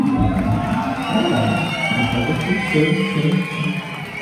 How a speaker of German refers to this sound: Oh, ähm, Dresden. Erstmal Applaus für ….